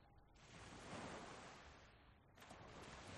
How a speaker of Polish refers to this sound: słyszycie, jak już faktycznie zgasło ognisko E, już pozostały tylko fale jeziora i odgłosy lasu wokół.